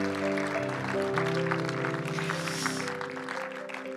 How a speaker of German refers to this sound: Hey, lass uns mal all denen einen Applaus geben, die das gebetet haben. So cool.